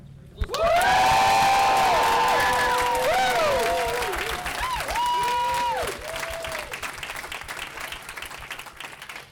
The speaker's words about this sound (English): Let's give another cheer.